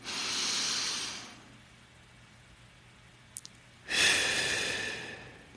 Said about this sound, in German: Und vielleicht können wir uns das auch ins Bewusstsein rufen, wenn wir bewusst atmen.